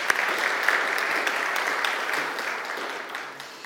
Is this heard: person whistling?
no